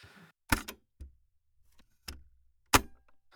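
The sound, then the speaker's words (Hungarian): Someone chewing food noisily, with four sharp, wet smacking bursts at irregular intervals and quiet gaps between them. No one speaks. “Csámcsog nyugodtan.”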